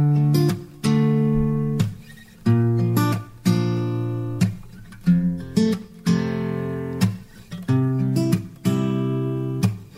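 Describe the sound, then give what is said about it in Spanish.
A bright, synthetic melodic intro plays with rhythmic chord stabs and sustained harmonic tones, loud and up front, no voices, in a steady pop pulse. “vamos a escuchar, Adri, la de eh, …, que también nació de una forma”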